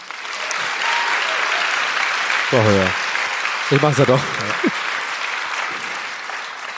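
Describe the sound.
Steady, dense applause from a live audience for a listener's question fills the whole clip, a broad hiss of many clapping hands, with a few short spoken phrases briefly rising over it.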